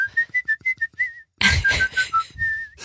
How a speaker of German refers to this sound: da muss man sich so große Kellerräume vorstellen, da hat es immer Gehalt, da habe ich dann gepfiffen und gesungen. Aber das ist gut, also mit Hall.